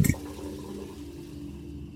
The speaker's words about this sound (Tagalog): Nung nagsasabon na ako ng katawan ko, isinara ko muna ang gripo kasi puno na yung timba ng tubig.